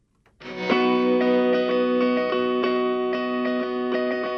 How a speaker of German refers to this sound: Aus dem Anlass hören wir einen Song von ihnen.